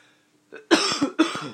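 A person coughs: a small throat sound, then two harsh, loud coughs in quick succession with a brief gap between them. No one speaks.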